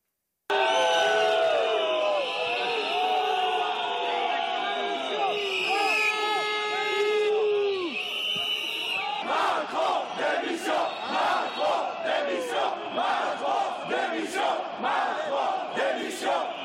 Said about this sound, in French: on va écouter quelques extraits de, ce qui s'est passé, les sifflets contre le président et le fait que le président justifie la présence des CRS.